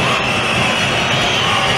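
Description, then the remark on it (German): A packed indoor basketball arena crowd roars loudly and continuously, a dense wall of noise with a bright, shrill edge of massed whistling from all the spectators running through it for the whole moment. “Und hier fliegt gleich das Dach von der Hartmann alle. So laut sind die Zuschauer. Ja, alle pfeifen.”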